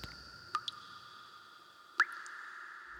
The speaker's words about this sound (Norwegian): Cellene der var jo fulle av lut, som var mer eller mindre oppkonsentrert på tungtvann. Til slutt drypper det rent tungtvann ut.